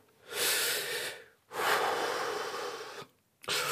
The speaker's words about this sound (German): Atmen. Das mache ich doch.